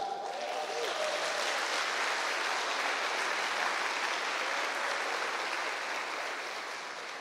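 An audience applauding together for Jesus for the church's solidarity market, a steady dense wash of many hands clapping that stays loud and even for several seconds before easing slightly at the end.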